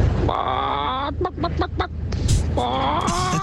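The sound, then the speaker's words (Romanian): In a listener's message, a person imitates a broody hen sitting on eggs with two drawn-out, nasal clucking calls, separated by a short run of sharp, choppy clucks. The calls are loud and sound alone, over a steady low hum. “Vezi, Era asta- o cloșcă pe, pe ouă.”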